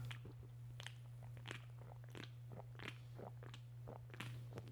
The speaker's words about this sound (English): If you're wondering what the slurping was. Oh yeah, that's the good stuff.